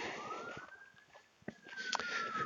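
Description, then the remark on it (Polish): An ambulance siren holds a long, steady wailing tone that rises slightly and then falls away, fairly faint against a backdrop of outdoor noise and a few sharp clicks. “No, może tam jedzie właśnie karetka po jakiegoś palacza nałogowego, który, któremu zdrowie już nie wytrzymało.”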